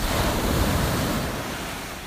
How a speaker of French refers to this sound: C'est la mer. La mer, si tu ne peux pas aller à la mer, la mer vient à toi.